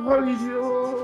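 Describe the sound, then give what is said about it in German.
A person imitates a man screaming in rage with their voice: one sustained, wavering cry of about a second, held at a fairly even loudness with only a slight drop toward the end. “Einfach und so, ihr hört, ihr, hört ihn so, ihr hört ihn so vor Wut aufschreien, aber dieses Schreien wird irgendwie leiser und dann.”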